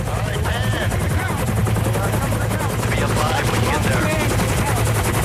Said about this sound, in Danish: Helikopteren hænger der.